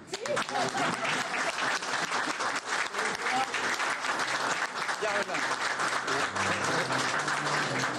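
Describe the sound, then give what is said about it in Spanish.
Sustained applause at the Dominican Republic's National Assembly, where the presidential sash is handed to Luis Abinader before members of the National Congress. The applause is a dense, steady wash of many hands clapping at a constant loud level, with some indistinct voices mixed in underneath. “Pueden aplaudir.”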